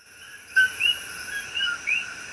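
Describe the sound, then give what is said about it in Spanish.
A rainforest field recording: steady high-pitched insect trilling fills the background while several short bird whistles and chirps rise over it, with no voices. “puedes tomarle el pulso literalmente a lo que está ocurriendo en la selva”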